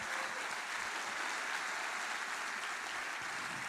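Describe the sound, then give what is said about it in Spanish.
An audience claps together in sustained, dense applause given to the Lord, a steady wash of many hands with no pauses, loud and even from start to finish with no voices standing out. “Para dar el mejor aplauso que le hayas dado al Señor.”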